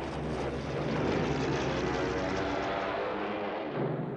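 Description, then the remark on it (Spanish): A Stuka dive bomber equipped with sirens roars loudly and steadily with its propeller engine, a dense drone that holds constant throughout with only slight swells, no voices present. “Los estucas son bombarderos en picado equipados con sirenas.”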